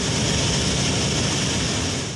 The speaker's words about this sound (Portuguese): O jatinho que tinha saído de São Paulo para buscar um paciente com Covid-19 em Diamantina não conseguiu frear e caiu num barranco. A frente do avião ficou destruída. As turbinas do jato continuaram ligadas por duas horas após o acidente.